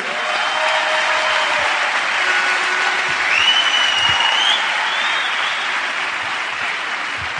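An audience applauds steadily for several seconds, a dense, continuous wash of clapping with a few faint whistles or cheers rising above it midway.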